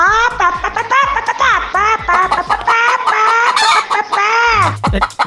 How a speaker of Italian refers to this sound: No, la gallina ha risposto.